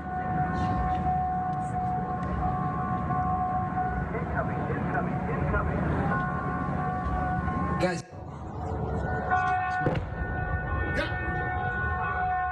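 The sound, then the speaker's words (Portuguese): A loud rocket approach warning siren, set off during a rocket attack near an embassy in Iraq, drones on with a steady, unwavering tone over background noise and murmuring voices, breaking off briefly partway through before resuming. “Vídeos publicados no Twitter mostram o ruído dos alarmes de aproximação dos foguetes e de uma explosão”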